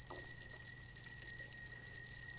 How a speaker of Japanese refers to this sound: ちょっと他にも鳴らしてみましょうか。はい、風鈴みたいな音がしてますね。これは先ほどもちらっと言った釘の音